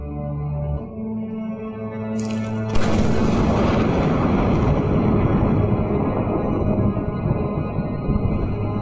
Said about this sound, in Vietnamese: Tiếng sấm nổ báo hiệu một trận mưa rào sắp được đổ xuống Đúng như vậy Những hạt mưa rơi lách tách bên ngoài cửa sổ đã đóng kín Chỉ ngay sau tiếng sấm nổ một khoảnh khắc